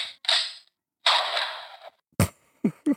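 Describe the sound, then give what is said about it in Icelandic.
A gunshot sound effect played from a small handheld sound-effects button device: loud, hissy bursts of gunfire with noisy tails, followed by three sharp, quick bangs in close succession, with no talking. “þetta er svona, þetta er svona stemnings stemningstakki hér er til dæmis uh, eh, byssuskoti, ég veit ekki hvað ég geta nokkur nota það”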